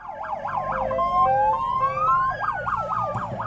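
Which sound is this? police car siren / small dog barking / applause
police car siren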